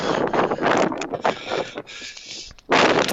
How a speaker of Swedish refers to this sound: Ah, vad det blåser.